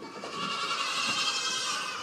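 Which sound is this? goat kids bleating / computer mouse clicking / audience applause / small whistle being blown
goat kids bleating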